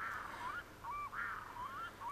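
A red-throated loon calls in a run of drawn-out, nasal, goose-like wails, each rising and falling, repeated four or five times without pause and with no one talking.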